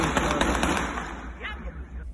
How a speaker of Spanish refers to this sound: Momentos de tensión e incertidumbre se vivieron en el residencial Bienaventuranza en Santo Domingo Norte. Los disparos venían desde distintos ángulos, generando confusión entre los vecinos en este residencial.